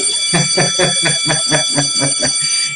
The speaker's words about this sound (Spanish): Ya ve tocando la, la campana, que ya vamos a pasar.